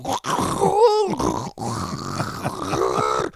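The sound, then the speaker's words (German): A voice imitates a muffled, rumbling cassette tape recording of a live concert, with low, growling hums and groans, broken by a couple of brief abrupt gaps. It sounds moderately loud. “dann aber selber großen Genuss daran gehabt, dann immer wieder diese Aufnahmen zu hören, auf denen aber für den Außenstehenden nichts weiter zu hören war, außer Rumpeln, Rauschen und unregelmäßige Unterbrechungen dieses Rumpelrauschens.”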